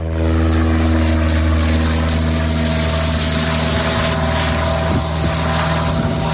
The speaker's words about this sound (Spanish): Te giras y ves una avioneta que cruza el aire cerca de la orilla y de su cola cuelga un cartel que dice Gran terraza de verano el galeón, abierta todo el día.